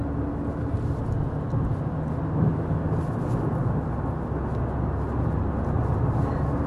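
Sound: car interior road noise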